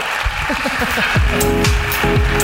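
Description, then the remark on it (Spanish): An audience at a live show claps steadily for a performer in a dense, continuous wash of applause, with some voices whooping and calling out over the clapping. “Aplauso para la ruina de Pau Escribano.”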